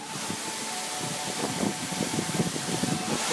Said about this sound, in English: It's a man made waterfall. It's right uh, at the top here uh, in the park